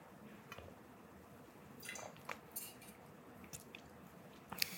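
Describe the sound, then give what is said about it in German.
Someone quietly sips water, with soft wet mouth clicks and small slurping sounds scattered over a few seconds and no talking. “Jetzt erst schnell ein Stück Wasser.”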